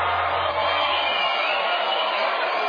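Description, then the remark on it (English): A steady, dense roar of crowd cheering from the video game Guitar Hero, thin and slightly muffled in tone, holding at an even level for a few seconds with no voices speaking over it. “video crowd. They love us.”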